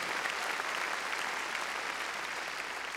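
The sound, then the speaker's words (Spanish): Loud, sustained applause from a crowd giving strong applause to the Lord, a dense steady patter of many hands clapping at once with no pauses, filling the whole three seconds without talk over it. “Démosle, démosle palmas fuertes al Señor”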